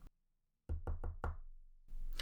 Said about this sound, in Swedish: I slutet av september 1863 knackade på dörren hemma hos Inga Nilsson.